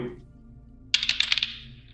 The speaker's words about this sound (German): Einer, einer, kann, einer kann würfeln.